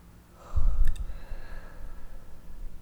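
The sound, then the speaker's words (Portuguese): A single deep breath pushed out through the mouth during a breathing exercise, fairly strong, like a sigh, then fading into soft, quiet breathing noise. No one speaks. “Então você respira e segura esse ar 4 segundos no peito. Aí solta pela boca e segura o pulmão 4 segundos vazio.”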